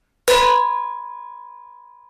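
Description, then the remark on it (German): A single metallic strike on the bottom of a cooking pot: a sharp clang that settles into a bright ringing tone with overtones, slowly fading over about two seconds. No voices. “Es ist ein riesengroßer Unterschied, ob ich auf den Topfboden schlage”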